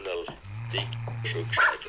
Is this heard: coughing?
no